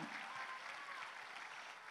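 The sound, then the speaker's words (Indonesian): A church audience applauding steadily during a service, a dense wash of many hands clapping at an even, sustained loudness throughout, with no voices standing out above it. “Wow, wow tepuk tangan lebih mantap.”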